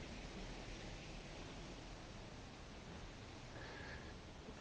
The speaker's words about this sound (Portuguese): Não sei se vocês conseguem escutar o barulho do vento. Aqui onde eu moro, o vento passa nas plantas e faz esse barulho muito gostoso muitas vezes a gente até esquece dele, né?